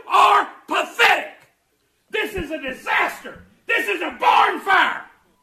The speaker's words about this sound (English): That's my next door neighbor yelling at me at uh, 612 this morning.